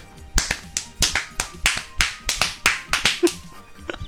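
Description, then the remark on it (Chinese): A fast, steady run of about fifteen crisp hand claps and slaps in the rhythm of a competitive clapping game, imitated at home without the foot stomping. The sharp, loud smacks come in quick succession with no talking. “然后那个我我这是在家，我还没法模仿另一个动作，就是你拍手的时候还得跟着跺脚， 对对对对对对，就是你要这个全身上下都要动，”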